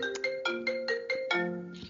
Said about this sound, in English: Ooh, somebody's getting a phone call.